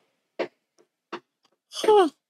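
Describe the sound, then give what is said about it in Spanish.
Two dull knocks land about three-quarters of a second apart, hammer blows from someone hammering. A short voiced sound from a person follows right after. “No, pero suena es como martillazos.”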